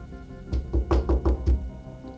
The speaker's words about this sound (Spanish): De pronto en la noche tocaron a su puerta.